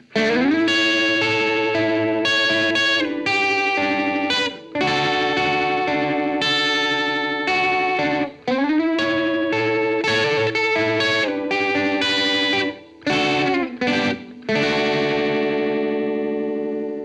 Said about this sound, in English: really like the subtle vibrato effect that the phaseomatic can impart on your sound. So for this example, I mainly played the G string open and played moving sort of Celtic or major pentatonic melody lines against it